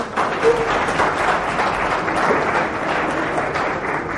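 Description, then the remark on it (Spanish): An audience at the DevFest Málaga 2019 conference applauds a technical talk: a steady, dense wash of many hands clapping that holds at an even, fairly loud level for about four seconds, with no voices standing out. “Bueno, muchas gracias, como me aplaudáis.”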